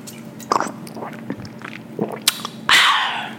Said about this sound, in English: You know, last week I was sipping on some water. I'm still about to be sipping on some water.